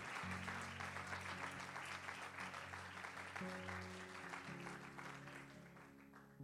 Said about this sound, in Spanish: Si, le va a dar un aplauso, se lo va a dar con ganas y con fe.